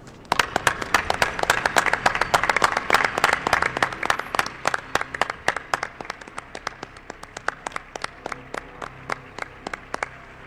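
An audience applauds steadily for a guest of La Nave del Misterio, dense overlapping claps at first that gradually thin out into fewer, more distinct claps toward the end, with no talking over it.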